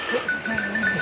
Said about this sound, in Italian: Questo è il verso del cammello.